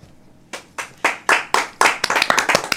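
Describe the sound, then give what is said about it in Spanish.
Crisp hand claps from a small group, prompted by an applause sign, begin slowly and evenly, then pick up and overlap into brief, lively applause, fairly loud with no voices. “Aplausos, salió el letrero de aplausos Ahí está.”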